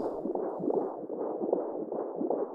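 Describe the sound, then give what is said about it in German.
A fetal heartbeat on a monitor: steady, rhythmic whooshing pulses with a muffled, watery texture, repeating evenly and filling the whole clip with no voices. “Den Herzschlag?”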